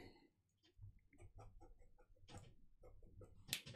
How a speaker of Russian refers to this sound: У меня какие-то трясогузки за окном шкварчат.